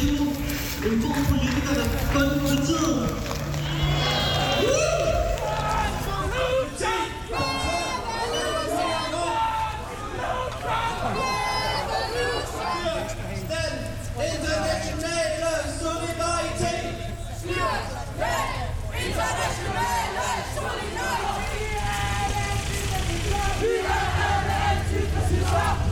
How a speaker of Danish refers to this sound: har gået igennem Indre København indtil videre i et ret roligt tempo med en god stemning, kampråb og høj musik, og nu bevæger vi os stødt hen imod Christiansborg.